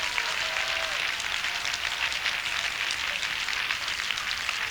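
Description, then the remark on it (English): A crowd of people clapping their hands to the Lord in a dense, continuous wash of applause that holds steady for the whole stretch, with no voices breaking through. “Oh, clap your hands to the Lord.”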